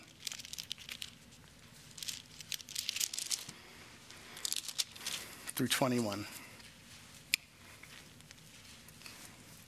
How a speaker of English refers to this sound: Hmm, the pages of God rustling. That is mighty.